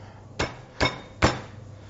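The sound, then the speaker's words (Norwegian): Three sharp, heavy cracking blows spaced evenly about every half second as a chicken carcass is crushed, each with a brief crunchy tail, fairly loud. “Skroget moser du sånn som dette her.”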